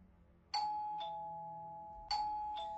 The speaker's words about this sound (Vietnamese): sau một hồi bấm chuông thì cô giáo của ly ra mở cửa